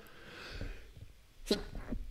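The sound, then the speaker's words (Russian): A single abrupt sneeze bursts out, preceded by a breathy inhale and followed by a short snort-like exhale. No one speaks. “Если на каком-нибудь месте чихнешь, значит, так оно и есть.”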